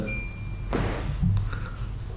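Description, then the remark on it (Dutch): A microwave oven's steady electronic beep tone cuts off, followed by the thud of its door opening and a few soft clunks and rattles afterward. “Dat is een magnetron. Ja, een magnetron denk ik wel.”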